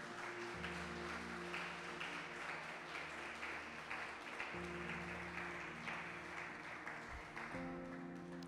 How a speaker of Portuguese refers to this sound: Se você crê nisso, dê uma salva de palmas ao Senhor, amém?